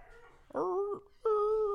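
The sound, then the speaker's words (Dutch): A dog whimpers inside the house itself, not at the neighbours', in two drawn-out, high-pitched whines, the second starting after a brief pause and holding steady to the end, with no talking. “En nu komt dus een extra hondje binnen.”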